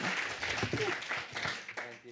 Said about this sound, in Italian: Quindi, signore e signori, Chiara Valerio, accogliamola con un applauso, buon incontro.